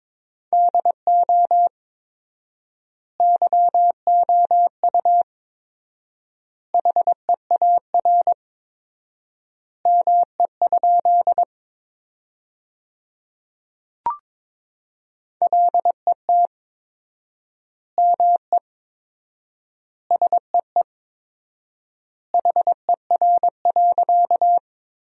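Morse code beeps at 22 words per minute with fourfold word spacing, sending sentences built from the 300 most common words, in a single steady mid-pitched tone, keyed rapidly into bursts of dots and dashes with long pauses between word groups, clean and alone with no voices.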